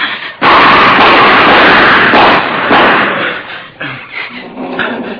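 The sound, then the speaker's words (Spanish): Loud pistol gunshots crack in quick succession, their blasts blurring into a sustained, echoing roar before a few scattered, fainter shots trail off near the end. “Yo tengo la pistola. ¿Qué es? ¿Qué es? No sé, no, sé, será un puma o una leona de los que hay aquí en la sierra. Oh. No sé, voy a disparar los tiros.”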